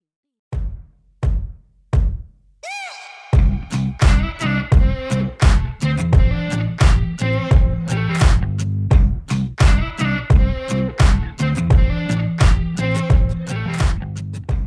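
A pop single by the American Music Awards' new artist of the year opens with a few sparse, punchy percussive hits, then a full band kicks in with a steady, driving beat and layered chords that stay loud and busy throughout.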